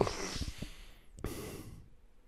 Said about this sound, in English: Heavy breather.